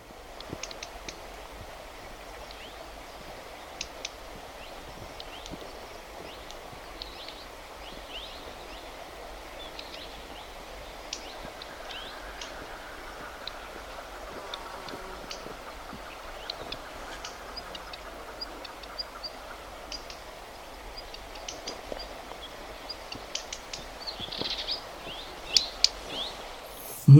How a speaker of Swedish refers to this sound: Nästa inspelning här kommer uppifrån eh, lite högre altituder. Aha. Det är eh, flera kullar med svarta rödstjärtar som har flugit ut. Det här är alltså unga svarta rödstjärtar vi ska lyssna på nu.